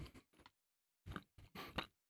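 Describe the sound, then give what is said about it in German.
Crunchy chewing of a bite of hard mountain cheese, a few short bursts with brief pauses between them, no talking. “Er vergeht relativ schnell für einen Herdkäse, wenn du ihn äh, kaust.”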